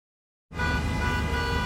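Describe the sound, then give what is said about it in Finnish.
After a brief silence, loud car horns suddenly blare together over a dense rumble of idling traffic, sustained and overlapping in a morning rush-hour traffic jam. “Jussi on jumahtanut aamuruuhkaan. Jälleen kerran. Tööt, tööt ja brum brum.”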